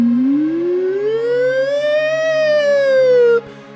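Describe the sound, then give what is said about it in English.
A voice imitates the car alarms of cars on a street going off, with one long, loud wail that rises slowly in pitch, peaks, then dips slightly before cutting off abruptly. “All the cars on the street are wow, wow, wow. Ooh, ooh, nah, nah, nah.”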